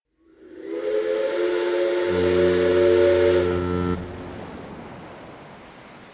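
A loud, sustained steam train whistle blows for about three seconds, its chord of harmonic tones dropping lower partway through, over a steady hiss that lingers after the whistle stops.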